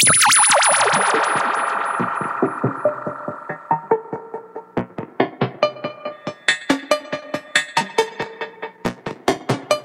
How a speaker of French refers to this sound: on est typiquement dans le dans ce que sait faire le modulaire, quoi, les sons un peu bizarres.